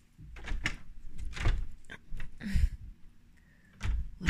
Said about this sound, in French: J'ai pas réussi à fermer la porte comme il faut. J'entends le courant d'air.